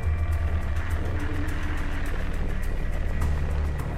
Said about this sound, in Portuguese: Este flagrante mostra a chegada de uma cabeça d'água à cachoeira. Em menos de 15 segundos, o volume de água aumenta rapidamente. A força impressiona.